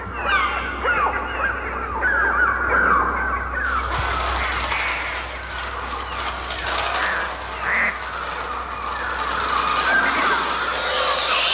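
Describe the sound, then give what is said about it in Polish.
Dense, continuous bird cries from the film The Birds, whose bird sounds Bernard Herrmann supervised, fill the scene, overlapping screeches and honking calls forming a loud, chaotic, unsettling wash of sound with no music or talking. “ptasie dźwięki, tak, tak one też tak. tam się układają w taką dziwną muzykę”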